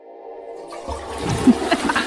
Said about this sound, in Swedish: Det var ord och inga visor på den spolningen. Det var det. ja. Tryck på knappen en gång till.